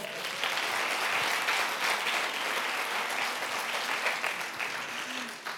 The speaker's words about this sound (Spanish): regalen un aplauso a Bernabé, por favor